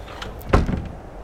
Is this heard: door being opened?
yes